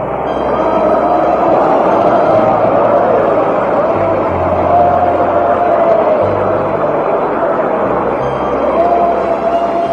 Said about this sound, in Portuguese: Pode levar a Deus com as mãos, com palma dada, irmão. Irmãos, essa palma foi sem vitória contra Satanás palmas de vitória contra Satanás.